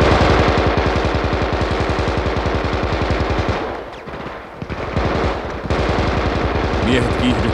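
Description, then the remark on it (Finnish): Loud machine gun fire rattles in rapid, sustained bursts, breaks off briefly for a muffled lull, then resumes with another dense stream of shots; the gun's cooling water is boiling. “Konekivääri tärisi ja papatti.”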